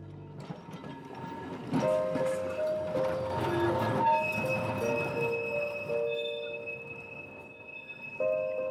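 A tram heading up toward Ekeberg in Oslo, Norway, in January 1977 rumbles steadily along its rails, with sustained metallic squealing tones and a whining motor riding over the low rolling noise, continuous, with no voices.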